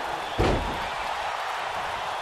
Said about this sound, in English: Okay, now. Choke slams Goldberg over the top rope. Wow. Holy smokes!